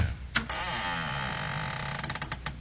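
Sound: creaking door opening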